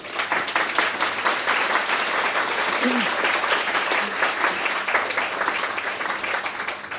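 Sustained audience applause from a sizable crowd at an evening meeting with guest Krystyna Kurczap-Redlich, dense overlapping claps at a steady, fairly loud level for several seconds without letting up.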